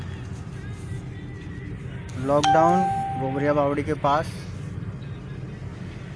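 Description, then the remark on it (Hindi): A steady low rumble of city street traffic during a lockdown, with many shops open and flyover and underpass construction under way, fills the background, with a man speaking briefly over it in the middle before the hum carries on alone. “दुकानें काफ़ी सारी खुली हुई हैं शहर में ट्रैफिक दिखने लगा है”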